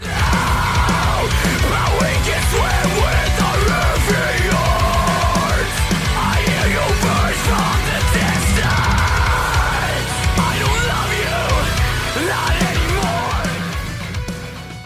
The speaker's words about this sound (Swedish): Håll för öronen nu, för nu kommer mitt vårskrik.